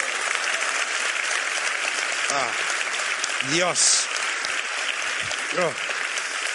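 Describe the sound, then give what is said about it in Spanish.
A studio audience applauds steadily and densely for several seconds, a continuous wash of clapping with a few brief voices exclaiming over it; the applause follows a joke about the Garoña nuclear power plant. “Bueno, es el aplauso del miedo, ¿no?”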